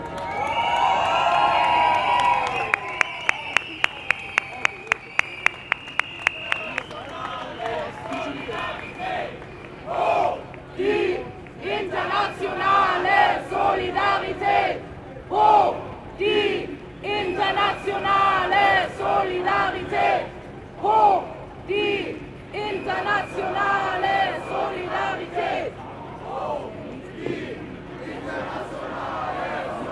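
A large antifa protest crowd cheers and chants in rhythmic bursts, loud, with rapid clicking or drumming early on and a steady roar underneath the repeated shouted phrases, on the street at a demonstration against the Akademikerball in Vienna, Austria, on 16 February 2024.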